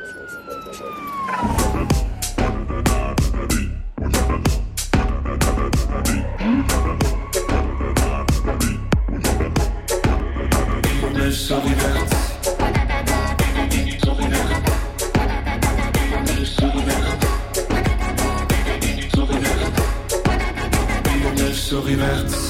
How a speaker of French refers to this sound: on va écouter tout de suite en entier cette fois le titre …